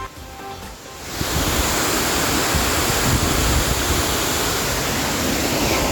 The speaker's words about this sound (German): Jetzt sind wir beim Wasserfall. Es ist ziemlich laut, ihr könnt mal hören.